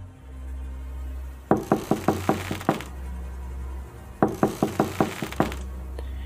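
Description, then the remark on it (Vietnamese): Two bursts of sharp knocks on a wooden door at night, each a quick series of six or seven raps, separated by a brief pause over a low steady hum. “Rồi bất ngờ có tiếng gõ cửa vang lên”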